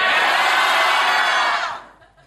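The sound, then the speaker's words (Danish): A large crowd roars together on cue in one loud, sustained shout, answering the host on a third try, lasting over a second, then quickly fades off, leaving faint residual voices. “Så nu prøver vi tredje gang, så skal det være så himlen løfter sig.”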